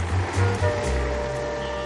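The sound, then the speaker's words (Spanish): A bus pulls up at the gate of a metalworks factory, its engine giving a steady low rumble under a broad rushing hiss, with a faint whine running through it. No one speaks. “Llega el autobús a la puerta de la metalurgia.”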